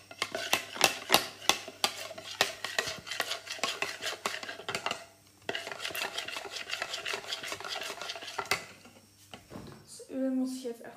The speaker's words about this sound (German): Ähm, solange mein iPad noch aufgeladen hat, habe ich jetzt das Ganze nochmal in den Kühlschrank gemacht. Deswegen muss ich jetzt einfach mal umrühren, damit sich das Ganze nicht absetzt.